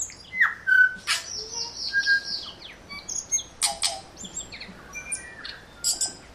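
A tui sings alone in a rapid, varied sequence of clear whistles, squeaky notes, clicks and buzzy chirps, moderately loud, with no voices present.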